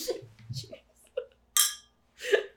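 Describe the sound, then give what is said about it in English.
Glasses clink together in a toast: a bright, ringing tap, followed by a second, duller knock, with brief murmuring voices at the start. “Cheers, friend.”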